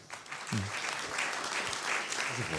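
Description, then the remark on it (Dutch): Steady, dense audience applause for panelist Roxaan van Iperen at a panel on journalism, a broad wash of clapping that stays loud throughout, with a few brief voices or cheers rising faintly beneath it. “Mag ik een warm applaus voor Roxaan van Iperen?”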